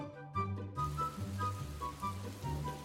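Steady, hissing rain sets in after a moment, spreading as a soft wash of patter beneath a gentle melody with low, sustained musical notes. No voices are heard.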